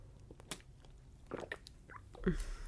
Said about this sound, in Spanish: El ASMR ahí de mi tragote de agua, pero una disculpa.